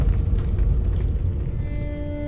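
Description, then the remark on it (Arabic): A deep, loud rumbling snore of a giant sleeping in a forest, a continuous low roar that fills the whole moment without pause, with a faint steady hum rising above it toward the end. “لحظة نسمع صوتا غريبا يبدو أنها عاصفة لا لا إنه زلزال الأرض تهتز علينا أن نهرب هذا ليس زلزالا ولا عاصفة يا تيالف أنا أعرف هذا الصوت جيدا هذا صوت شخير عملاق”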